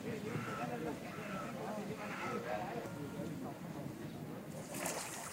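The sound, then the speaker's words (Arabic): Busy swimming pool ambience at the Gezira Club in Cairo during a freediver's training session with her coach: a steady wash of overlapping, indistinct voices and echoing chatter over continuous splashing water, with a brighter splash near the end. “حضرت معاها هي والمدرب بتاعها تمرين في نادي الجزيرة طبعا جو مختلف تماما عن السرحان في البحر دوشة وناس كتير وتفاصيل بقى هنعوم كام متر وهنريح كام ثانية”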